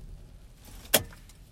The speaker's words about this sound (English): And listen, I apologize for driving and podcasting, but I know it's a, some background noise.